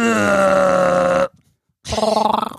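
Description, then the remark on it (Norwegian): A person imitates a Wookiee growl: a long, loud, sustained throaty roar, a brief pause, then a shorter rasping, warbling growl that trails off. “Eh, eh, det var en eh, sånn slags lyd han da lagde.”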